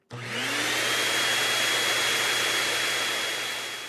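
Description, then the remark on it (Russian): Booth's early motorized vacuum cleaner, used on the streets of London, switches on abruptly, its motor whining up to speed, then roars loudly and steadily with a low hum and a thin high whine, with no voices. “Вскоре Буту вовсе запретили пользоваться пылесосом. Оказалось, что рев пугает лошадей, и на улицах Лондона участились несчастные случаи.”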